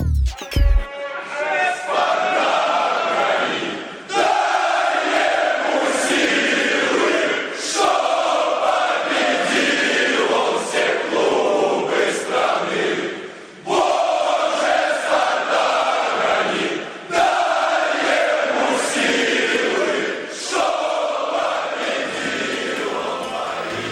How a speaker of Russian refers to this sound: Часто под кричалки переделывают какие-то известные популярные песни или даже стихи и былины. Фанаты «Спартака», например, адаптировали гимн Российской империи «Боже, царя храни».